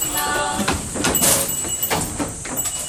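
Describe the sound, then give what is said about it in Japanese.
Vehicle doors open inward on arrival at the summit terminus, sliding with a steady mechanical rumble and hiss, a few soft knocks and clunks along the way, moderately loud, with faint murmuring in the background. “あ間もなく終点でございます頂上でございますドアが内側に開きますオレンジ付近の方は一歩下がってお待ち願います。”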